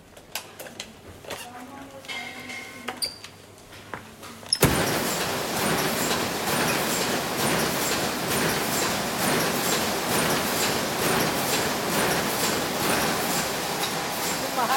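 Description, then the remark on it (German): After a few seconds of quiet rustling and faint tonal sounds, a machine abruptly starts up and keeps running with a loud, steady, dense whirring roar until the end; a black stripe marking shows that its roll has run out. “Das war äh, die Markierung, der schwarze Streifen. Ne? Der zeigt, dass die Rolle alle ist wenn man lange äh, an einer äh, Maschine arbeitet.”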